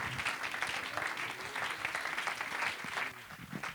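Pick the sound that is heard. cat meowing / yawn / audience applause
audience applause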